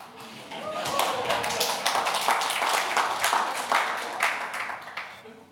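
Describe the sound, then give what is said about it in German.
A crowd claps together in a steady, dense patter of many hands, sustained at an even moderate loudness for several seconds before starting to taper off. “Jetzt habt ihr sogar klatscht, super.”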